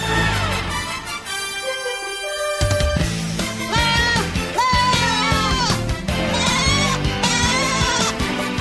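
Loud, wavering goat bleats repeat in quick succession, several overlapping cries rising and falling in pitch, filling the whole stretch after a brief quieter opening.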